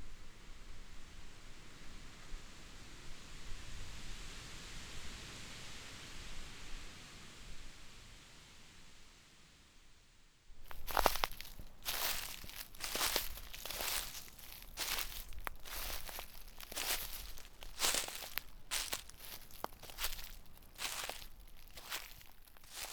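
Soft, steady airy hiss for about ten seconds, then repeated crunchy rustling of dry beech leaves in irregular bursts, as if someone is shuffling or stepping through a thick layer of leaves.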